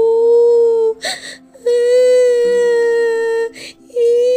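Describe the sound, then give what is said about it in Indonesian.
A child cries loudly in long, steady, high-pitched wails, three drawn-out cries broken by short, ragged gasping breaths. No talking is heard. “Sang anak mulai menangis, menyesal tidak mendengar kata-kata ibunya.”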